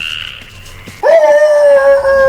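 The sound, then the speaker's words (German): After a second of quiet, thin whining, wolves break into a loud, sustained snarling cry that holds a strained tone and keeps going, with no one speaking. “Wölfe!”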